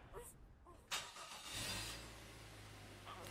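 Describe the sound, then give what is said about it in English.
A car engine turns over with a sudden burst, then settles into a steady low rumble as the car drives away from the side of the road, moderately loud, with no one speaking. “I turned the car around and gave this thing a farewell glance.”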